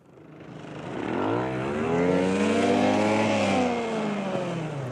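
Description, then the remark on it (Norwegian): A race car engine roars as it speeds past, its pitch climbing and then dropping away, loud and steady for the whole stretch with no voices. “Se for deg at du sitter i en racerbil og kjører så fort du bare klarer på baner du kanskje aldri har sett maken til tidligere.”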